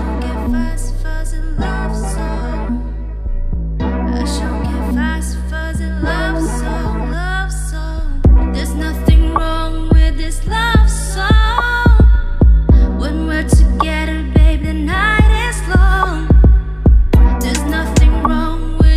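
A guest's rap song plays loud and continuous, driven by a deep, thumping bass beat with sharp percussive hits and layered melodic parts over the top.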